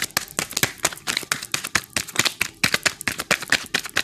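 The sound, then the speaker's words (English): Tarot cards being shuffled, a rapid run of crisp, papery slaps and riffles in an uneven rhythm, loud and dry with no talking over them. “to shuffle some more, you guys.”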